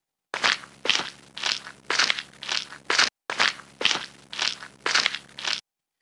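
Steady crunching footsteps of a person walking on rounds, at an even pace, about a dozen gritty steps with a brief pause partway through. No voices are heard.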